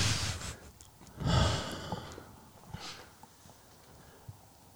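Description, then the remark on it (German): A slow, deep breath in and out during a guided relaxation exercise, with a louder airy exhale in the middle and softer breathy rustles around it, no talking. “Wir atmen gemeinsam wieder ein und lassen den ganzen Stress des Tages fallen beim Ausatmen.”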